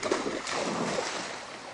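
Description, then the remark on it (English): A rippling creek on a 24-acre ranch of old growth trees just outside Sedona, Arizona ripples and burbles in a steady, unbroken flow. It is moderately loud, with small bright gurgles popping out of the wash and no voices. “24 acres of old growth trees, a family of hawks, and a rippling creek.”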